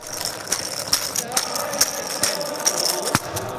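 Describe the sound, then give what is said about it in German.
A blind football's metallic rattle jingles continuously, with bright clinking bursts about every half second as the ball bounces and rolls. It is moderately loud, with no talking. “Man spielt es mit einem Rasselball und der klingt in etwa so.”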